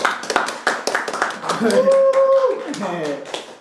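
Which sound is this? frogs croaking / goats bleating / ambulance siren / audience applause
audience applause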